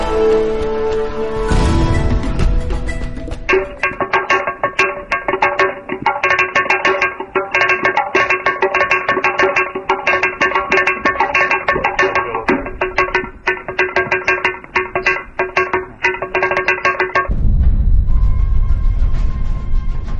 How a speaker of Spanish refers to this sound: Eh, también es eh, sorprendente el hecho de que mm, estos sonidos, que son bastante variados, diría yo, mm, están producidos en una simple roca, en una sola roca, que mm, es como una es como una mesa porque es una roca